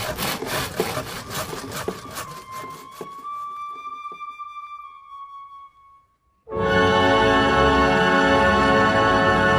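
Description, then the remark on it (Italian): A carpenter's saw cuts wood in quick, rhythmic back-and-forth strokes, then a ringing metallic tone fades out. After a brief silence, a loud, steady grinding roar takes over. No one speaks. “Lì le ruote meccaniche muovevano le macine di grano, il torchio per l'olio e la sega dei falegnami.”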